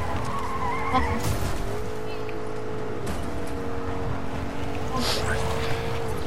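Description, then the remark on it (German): A steady, droning car engine hums throughout as a car drives in a video game, broken by several short, hissing tire skids spaced a couple of seconds apart, loud. “Alle wieder auf Auto. Let's go, komm.”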